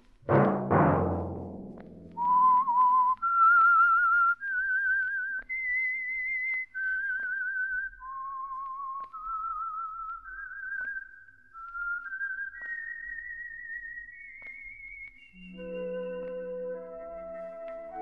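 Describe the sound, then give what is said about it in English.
A single clear whistled melody of sustained, sliding notes, the theme tune of a weekly Monday program sponsored by an oil company, rises and falls slowly after a brief low musical chord opening, ending as soft instrumental accompaniment enters beneath it. “Let that whistle be your signal for the Signal Oil program, The Whistler, each Monday at 8”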